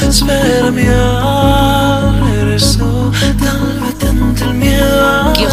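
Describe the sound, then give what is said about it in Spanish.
A newly released song, the singer's first on a record label, plays loud, with a deep, steady bass pulse under layered, sustained melodic parts and bright cymbal-like washes. Nobody talks over it. “esta tarde a las 7 de la tarde sale …, tu primera canción con God Records, el sello de Zara. Vamos a escuchar un poco cómo suena”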